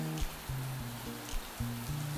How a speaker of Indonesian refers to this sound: langit semakin gelap dan hujan pun semakin deras